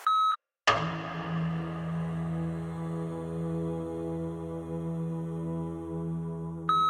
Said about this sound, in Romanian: După ce auzi bipul ăsta, înseamnă că ai dat rec și poți să vorbești.